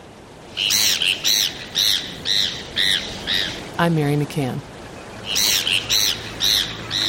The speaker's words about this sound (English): Watch for a gull with a very dark back, a powder white head, and unmistakably, a blood red beak. Heermann's gulls nest along the northwest coast of Mexico, disperse northward for a few months each summer, then return south.